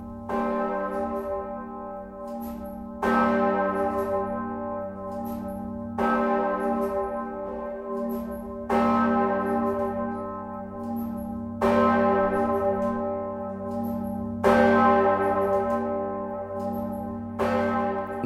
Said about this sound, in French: Sans compter que le bourdon est aussi le nom d'une cloche